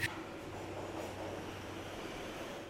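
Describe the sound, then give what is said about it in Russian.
A metro train rumbles along in motion, a steady roar with a low droning hum, opening with a brief sharp clank. No voices are heard. “Мне даже во снах этот Марокко снилось, как будто я сажусь в поезд в метро в Москве и выхожу на станции Марокко, серьезно.”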